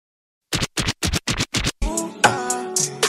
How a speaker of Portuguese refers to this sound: Agora vai tocar a vinheta aí e meus mano, depois da Papo de Rap e da Tudo de um Som Foda, vão se apresentar aí também.